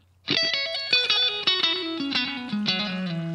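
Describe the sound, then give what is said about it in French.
A short, loud musical jingle bursts in with punchy, distorted chord stabs over a descending bass line, lasting about three seconds with no voices. “donc voilà, place au jingle.”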